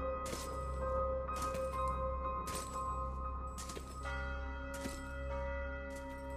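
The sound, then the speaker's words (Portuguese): A bell tolls in a steady rhythm, about five or six strikes spaced roughly a second apart, each ringing out with a long metallic hum over a low rumbling drone. No one speaks. “Movimento constante, no ritmo do sino.”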